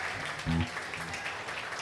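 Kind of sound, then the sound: crowd, audience applause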